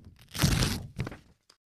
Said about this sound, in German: Wir suchen hier nicht wie im Radio einen mysteriösen Gegenstand, sondern sagen dir, was ich eben gemacht habe. Ich habe nämlich gerade eine Tüte mit Klebebildern aufgerissen.